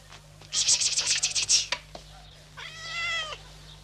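A rapid series of scratchy, rustling bursts is followed by a short pause and then a single clear, drawn-out meow from a captive cat kept on a string, at moderate volume against a quiet background.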